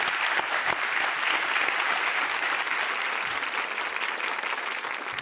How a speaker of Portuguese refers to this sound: Aplausos aí para os guardiões.